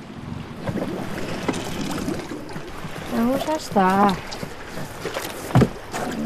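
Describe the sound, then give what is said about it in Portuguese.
A small boat coming from the sea comes alongside the wooden stilt pier of Carrasqueira amid wind and lapping water, with a solid knock as the hull meets the wooden stakes near the end; people talk. “o marido atracam junto às estacas de madeira. Vêm do mar.”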